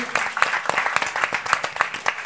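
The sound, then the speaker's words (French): An audience applauds, a dense patter of many hands clapping at a steady, moderately loud level with scattered sharper claps standing out. The applause is for a guest on a show. “Merci beaucoup Guillaume, euh, qu'on peut applaudir bien sûr”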